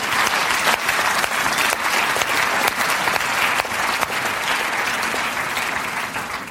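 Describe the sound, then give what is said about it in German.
Sustained audience applause for a large group of young men and women, a dense, steady wash of many hands clapping at once, loud and even throughout with no voices standing out. “Gebt einen Applaus für die jungen Männer und Frauen.”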